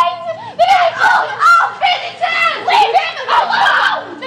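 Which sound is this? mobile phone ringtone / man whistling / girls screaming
girls screaming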